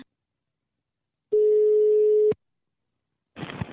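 A single steady telephone ringback tone sounds for about a second, a flat mid-pitched hum, before a voice answers at the end.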